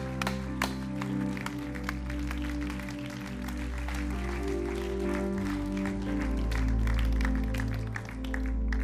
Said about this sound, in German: einen riesen Applaus geben.